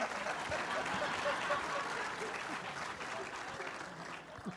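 An audience applauds the speaker's mother-in-law, who is present, steadily: a dense wash of many hands clapping at an even loudness for several seconds, fading slightly toward the end.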